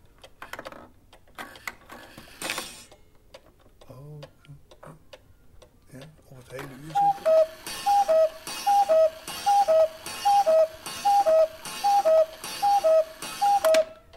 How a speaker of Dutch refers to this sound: Nou ja, poppetje gezien. Kastje dicht. Kastje weer dicht. Ja. Ja, en dan gaat het vogeltje weer. Leuk joh. Ja, de koekoeksklok. Ook hier aanwezig.